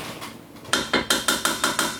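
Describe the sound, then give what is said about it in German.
Food being moved into a deeper pan: after a quiet moment, a quick run of about seven crisp metallic clanks as a utensil scrapes and knocks against the pan, fairly loud, with no talking. “Ich fülle das jetzt alles in die höhere Pfanne um”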